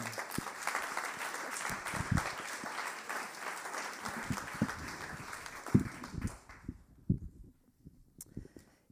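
An audience claps steadily for about six seconds, a dense wash of many hands in a room, then the applause fades out quickly, leaving a few scattered thumps and shuffling.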